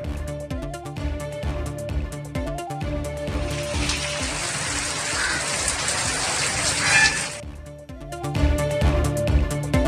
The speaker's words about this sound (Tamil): தமிழகத்தில் பரவலாக பெய்து வரும் மழை